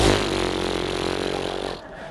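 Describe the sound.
A voice imitates a chainsaw with a steady, buzzy, rasping drone that holds for nearly two seconds at a fairly loud level, then cuts off abruptly.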